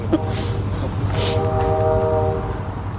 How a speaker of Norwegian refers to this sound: Ja, nå kommer det tog der.